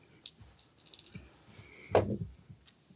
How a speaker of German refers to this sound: Und da würfel ich auf Fire Wing Passion.